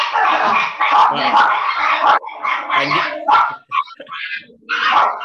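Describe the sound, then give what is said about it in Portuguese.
A dog barks repeatedly in a run of loud yaps and yips with short gaps between bursts, continuing for several seconds. “Tem alguém chegando? Não, é que o cachorro, quem está ouvindo.”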